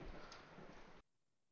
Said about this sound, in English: Dude, the lightning right outside my fucking house just said that Whoa. scared the shit out of me.